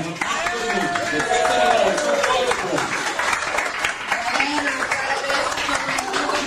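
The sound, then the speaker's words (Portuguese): An audience claps steadily and loudly for several seconds for everyone who took part, a dense crackle of many hands, with voices calling and cheering through it. “E uma salva de palmas pra todo mundo que participou aí, por favor.”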